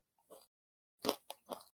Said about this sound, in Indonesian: sambil ngunyah, sambil ngunyah. Mohon maaf.